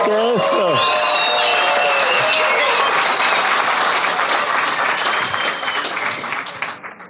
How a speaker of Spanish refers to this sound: Un aplauso para ti.